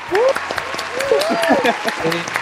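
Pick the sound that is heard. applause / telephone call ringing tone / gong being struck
applause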